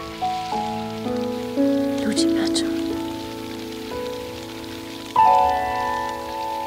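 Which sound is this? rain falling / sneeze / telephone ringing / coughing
rain falling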